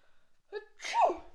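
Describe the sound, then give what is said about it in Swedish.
A single staged sneeze: a short voiced inhale rising into a loud, breathy burst that fades quickly, performed as a deliberate imitation rather than a real sneeze. “låtsas nysa.”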